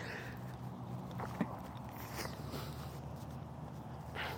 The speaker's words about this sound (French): attendez, je vais achoumer.